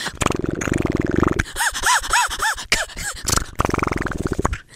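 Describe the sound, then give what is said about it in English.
A voice imitates a cement mixer, with a loud, rough churning rumble in rhythmic pulses and a warbling, gurgling middle stretch, then a return to the grinding growl. “Cement mixer.”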